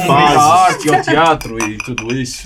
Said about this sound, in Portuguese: É uma um brinde, fase, um brinde, olha, saúde.